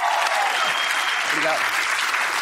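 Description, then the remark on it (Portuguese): A crowd applauds Amir Klink steadily, a dense wash of many hands clapping at an even loudness throughout, with a faint voice briefly audible underneath. “Oh, pode aplaudir de novo.”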